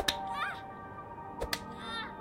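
Sharp whip-like lashes from a birch rod whipping a twelve-year-old girl as punishment: one crack near the start, then two quick strikes close together, all heard over a steady, ringing tonal drone with no speech.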